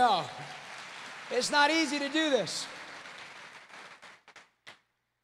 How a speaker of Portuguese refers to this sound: Ele está fazendo um bom trabalho. Estou indo muito rápido. Vamos dar uma salva de palmas para ele.